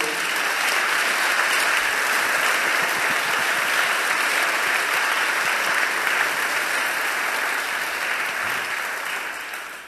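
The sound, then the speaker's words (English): Sustained applause from an audience at a talk, given for a speaker: a dense, steady wash of many hands clapping at full loudness for about ten seconds, beginning to fade only at the very end, with no voices. “Let's uh, give her a massive round of applause.”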